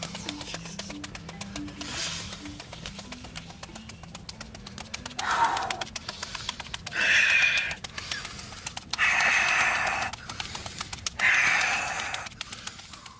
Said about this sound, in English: … is standing in a Speedo over an open fire and whacking his balls with his hands as he does breathing exercises